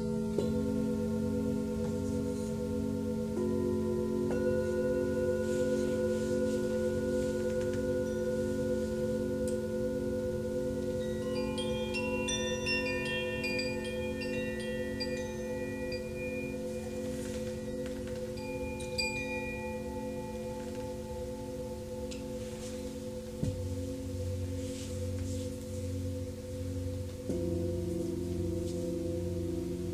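Birds chirp in short, high twittering bursts partway through, layered over a steady, sustained musical drone of held harmonic tones that shift pitch occasionally.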